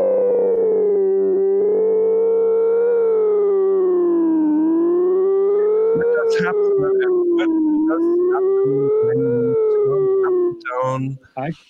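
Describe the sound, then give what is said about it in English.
A synthesizer's resonant filter, with resonance set to only 15%, screams in a loud, continuous, howling tone whose pitch slowly rises and dips, with a few brief clicks and bursts breaking in near the end. “That's just with uh, 15% uh, resonance. And you hear it's already screaming like hell.”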